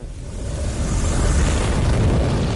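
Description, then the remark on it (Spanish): A deep, rumbling explosion boom, representing the nova explosion of a star in 1927, swells in and keeps roaring loudly with heavy low-end rumble for a couple of seconds, with no voices present. “Esa estrella sufrió una explosión de nova en 1927.”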